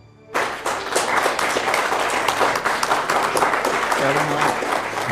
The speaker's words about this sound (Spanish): Gracias a estos aplausos tan merecidos.